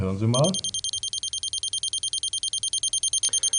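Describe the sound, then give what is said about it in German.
A Bluetooth tracker tag, triggered as an out-of-range alarm through a phone app that measures its signal strength, sounds a fast, steady run of high-pitched electronic beeps, about nine per second, loud, right after a brief spoken phrase. “Dann fängt dieses Teil an zu piepen.”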